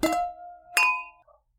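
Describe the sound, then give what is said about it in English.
Two bright clinks of wine glasses touching in a toast, each leaving a clear ringing tone that fades. The second tap comes just under a second after the first, with no voices. “Cheers. Cheers.”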